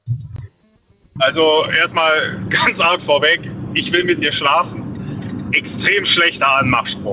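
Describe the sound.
A steady, loud low rumble of street traffic runs continuously in the background while a man who is out on the road talks and briefly laughs over it, the droning hum never letting up.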